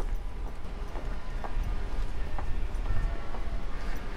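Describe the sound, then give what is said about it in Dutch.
Bells ringing on the Rechtboomsloot, a street in Amsterdam, with steady, evenly spaced strikes about twice a second, set against a dense, rumbling background noise; moderately loud and continuous, with no one speaking. “Terwijl ik even deze uitstekend getimede klokken laat weigeren”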